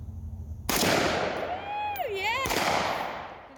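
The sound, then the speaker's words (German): Two loud gunshots from a lightweight rifle with little recoil at a shooting range, the first sharp crack echoing out, a thin whining tone sliding between them before the second shot cracks about two seconds later. “Meine Angst, die ist wirklich nach dem ersten Schuss verflogen, ähm, denn dieses Gewehr, ähm, das fühlt sich an, wirklich ein bisschen wie ein Spielzeug.”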